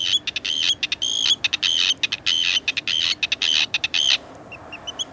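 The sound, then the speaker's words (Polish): Arctic terns call in a loud, rapid series of harsh, grating notes for about four seconds, then a few fainter, sparser calls trail off. No one speaks. “w ciągu roku przemieszcza się między Arktyką a Antarktydą i jest największym podróżnikiem w ogóle w świecie ptaków”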